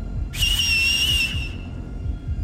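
A man puts two fingers in his mouth and whistles: a single loud, shrill whistle holds steady for just over a second, then cuts off, over a constant low rumbling background noise.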